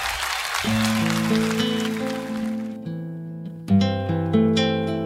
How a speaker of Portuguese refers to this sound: aplausos e o carinho de São Gabriel.